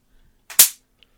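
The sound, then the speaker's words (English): A tennis-racket-style electric fly swatter, held up to the microphone, zaps an insect with one loud, sharp crackling snap that fades quickly, followed by a tiny faint tick. No one speaks. “now she's holding it by the mic so you can hear the corpse sizzle”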